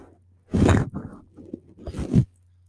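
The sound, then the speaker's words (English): Earrings jangle and rustle in two brief, noisy bursts, a louder one early and another near the end, over a faint steady hum with no talking. “If you can hear the jingles and jangles, I'm sorry, it's my earrings look at them.”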